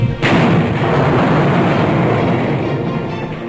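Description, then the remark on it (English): The planet Krypton explodes with a sudden, sharp blast that swells into a loud, deep, roaring rumble, sustained for several seconds and fading only slightly. No voices are heard. “One of the planet's leading scientists, sensing the approach of doom, placed his infant son in a small rocket ship and sent it hurtling in the direction of the Earth just as Krypton exploded.”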